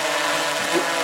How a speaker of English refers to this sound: right now that drone is hovering. well, at this point, I've just taken off. Feet. It's keeping itself steady where it's at. Seven feet off the ground, the GPS is basically holding the position.